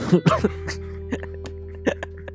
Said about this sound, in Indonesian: lo kayaknya lo tawain gue barusan lo, ah, enggak gue batuk barusan lo